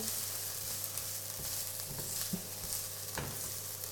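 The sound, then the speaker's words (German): Onions, now turning a little glassy, sizzle steadily in a hot pan, a dense crackling hiss throughout, with a few scraping stirs of a utensil against the pan; fairly loud, no voices. “Die Zwiebeln sind jetzt ein bisschen glasig geworden.”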